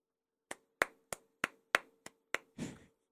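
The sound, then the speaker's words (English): A slow, sarcastic golf clap: about seven crisp, evenly spaced claps from a single pair of hands, finishing with a softer, longer smack, in mock congratulation of a player earning about $167,000 a day. No voices. “Golf clap.”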